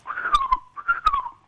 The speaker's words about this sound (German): Ein Vögelchen, ein Vogel. Ein eine Nachtigall ist das, glaube ich, oder?